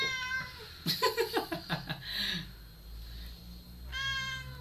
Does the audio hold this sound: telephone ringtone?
no